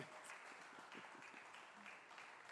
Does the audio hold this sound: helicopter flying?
no